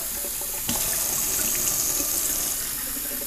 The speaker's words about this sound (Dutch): Even vullen, waterflesje.